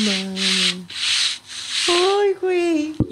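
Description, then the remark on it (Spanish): A voice imitates a man shuffling across the floor in slippers: about four breathy, rasping swishes in a slow, uneven rhythm, fairly loud, with a hummed tone running underneath. “Entonces yo en eso estaba haciendo mis necesidades y se empezó a escuchar este son, el sonido característico del caballero caminando con las pantuflas.”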